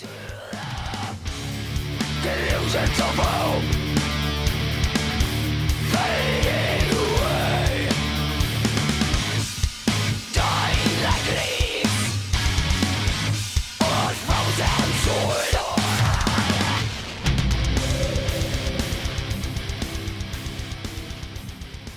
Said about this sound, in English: the false chord scream